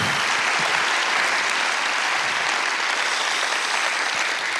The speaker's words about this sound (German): Und deswegen lass uns mal all den Mitarbeitern dieser Kirche einen Applaus geben. Besonders auch denen, die man nicht sieht im Hintergrund Geschichte schreiben.